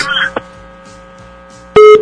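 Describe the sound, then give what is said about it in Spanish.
Electronic phone-line tones of a WhatsApp call connecting: a brief beep early on, then a loud, sharp tonal burst near the end, over a faint steady hum with no clear talking. “Tenemos reporte telefónico, Arturito, nos vamos con WhatsApp. Llamada.”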